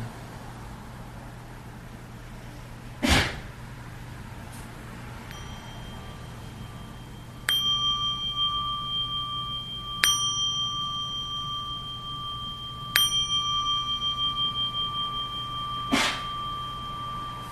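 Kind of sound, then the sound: signal or alarm, meditation bell ringing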